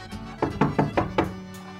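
Five firm knocks on a village shop door in a quick, even rhythm, each a dull wooden thud with a short ring, standing alone with no voices.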